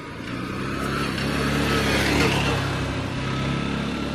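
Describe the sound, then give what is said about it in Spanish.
A quad bike engine drones past on a village street by the town hall, its buzzing pitch swelling toward the middle and easing off, with a steady outdoor background and no talking. “Es más, viene una moto, bueno, esto no es una moto, ¿cómo se llaman los que, las cosas que parecen una moto pero que tienen cuatro ruedas?”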